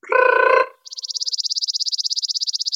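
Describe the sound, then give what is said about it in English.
A short voiced tone gives way to a person imitating a bird's trill with the tongue: a rapid, even run of high, choppy pulses lasting about two seconds, clear. “Another category of bird call you might hear is what's called a trill. And you do that with your tongue.”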